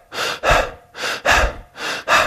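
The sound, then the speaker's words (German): A person demonstrates mouth breathing and shallow chest breathing: quick, shallow mouth breaths, three in-out pairs in a steady rapid rhythm, fairly loud, each breath a broad airy rush with no talking. “Schlimmste ist eigentlich Mundatmung und flache Brustatmung. Das hört sich dann zum Beispiel so an.”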